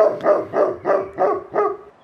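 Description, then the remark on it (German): A husky dog barks five or six times in a quick, steady rhythm, each bark sharp and fairly loud, with no voices alongside; the dog is out with a woman on a forest path. “Zu meiner Rettung kommt mir eine Dame mit Hund entgegen.”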